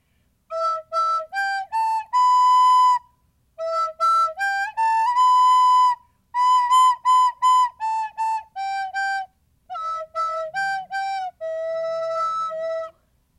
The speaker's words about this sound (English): Okay. So that was my recorder, my Okay, and my dogs are whining because they don't like the sound of me playing instruments.